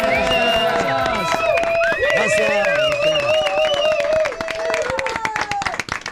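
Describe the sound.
A studio audience applauds and cheers loudly and steadily, with whoops and dense clapping, while a man speaks briefly over the noise before the applause begins to thin out.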